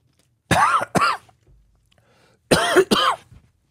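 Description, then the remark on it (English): Two loud bursts of harsh, sputtering coughing after water went down the wrong way, each a quick pair of raspy coughs, separated by a short quiet pause. No talking is heard. “Oh yeah, I need I need to take a course on how to drink water again. Went down the wrong side.”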